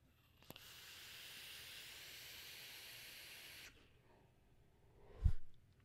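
A steady airy hiss of someone drawing on a vape e-cigarette for about three seconds, then a pause and a short, breathy puff of exhale near the end.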